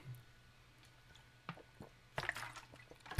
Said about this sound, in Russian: Я пока выпью немножко целебной воды. Это целебная вода. Я надеюсь, она меня исцелит